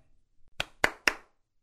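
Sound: hand clapping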